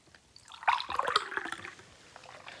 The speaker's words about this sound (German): Da haben wir einmal ein Glas und ähm, hier Wasser. Okay. Jetzt noch das ähm, andere, das Eingießgeräusch.